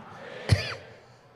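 A single short, dry cough, caused by a fan behind the speaker, bursts out sharply and fades quickly, heard alone over a faint, steady background hiss with no talking.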